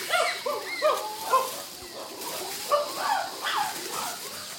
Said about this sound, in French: Attends, on va laisser passer cette famille de singes un peu bruyante.